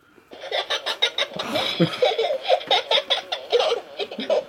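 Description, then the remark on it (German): A novelty toy foot, child-sized at about shoe size 28, giggles after being tickled and keeps on long after the tickling stopped, in a steady run of rapid, bouncy laugh bursts that carry on for several seconds, fairly loud, with no one speaking over it. “Aber du hast doch jetzt schon lange aufgehört zu kitzeln und das Gerät kichert immer noch.”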